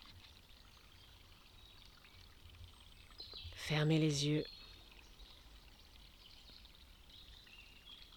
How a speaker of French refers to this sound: Et je te propose, je vous propose de vous asseoir, de prendre votre respiration consciemment, de prendre conscience de votre respiration tout en écoutant les bruits de la forêt.